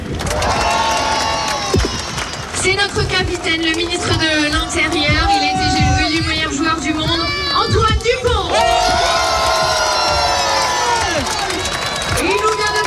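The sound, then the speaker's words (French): A large crowd cheers and shouts loudly and continuously for the players of the France rugby team, with high excited voices and whistles rising throughout, while a man speaks over the din. “Une immense liesse euh, populaire, un moment de partage, une communion entre les joueurs et la foule, notamment lors de cette Marseillaise reprise par le public.”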